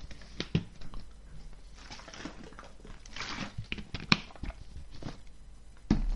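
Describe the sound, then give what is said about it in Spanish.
Someone drinking water: soft mouth and swallowing noises broken by a few sharp clicks and knocks, like a glass being handled, with a louder thump near the end and no talking. “Voy a beber agua.”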